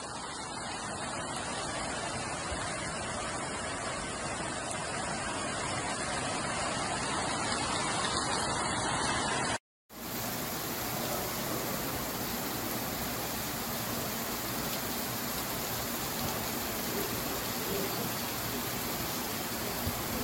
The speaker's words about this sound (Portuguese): Agora chove.